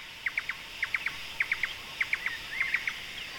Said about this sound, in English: The bird calls never ceased. We heard laughing thrushes and we heard drongos and Indian cuckoos and all kinds of birds with really distinctive calls. There was a kind of chorus behind us all the time.